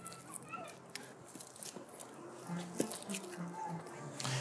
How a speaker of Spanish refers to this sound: Muy bien, voy a rociar sus velas con agua bendita.